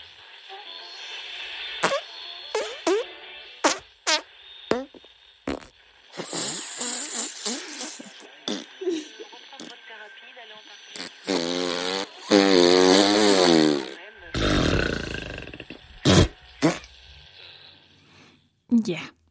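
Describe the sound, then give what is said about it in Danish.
A string of fart sound effects, some loud and sputtering with buzzy, wobbling tones, others quieter, hissing leaks, arriving in separate bursts with short gaps between them. “Vi ved alle sammen, hvordan prutter kan lyde. Stor trutter, snigende siver.”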